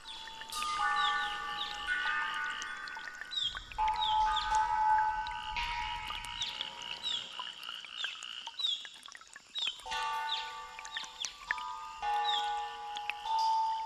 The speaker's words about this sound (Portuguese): A brisa dá uma trégua e conseguimos ouvir as reverberações da harpa d'água.